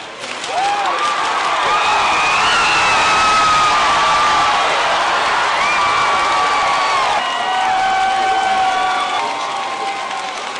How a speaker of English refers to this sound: And that that's cheer going up as Ohio is projected to go to Obama at 9.20. It's 9.20 p.m. tonight in the Mayfair Hotel at the Democratic National Party election night party. And as you can hear, they're pretty excited here.